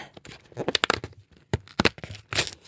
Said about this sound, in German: Ja, konnten Sie erraten, was das war? In zwei Wochen ist dieses Geräusch in Deutschland millionenfach zu hören. Dann dürfen wir nämlich das erste Türchen am Adventskalender aufmachen.